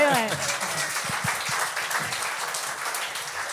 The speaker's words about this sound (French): Vous pouvez au moins applaudir ça.